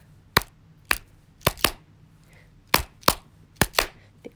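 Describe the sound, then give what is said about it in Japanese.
Nine sharp hand claps land in a loose, syncopated rhythm, some singly and some in quick pairs, crisp, with no talking, in the "yoyoi no yoi" chant-style clapping pattern everyone clapped along to during an MC's talk. “あのちょうどその MC のトークの流れでなんだろう手拍子拍を打つみたいなやつのあれでこうみんなが”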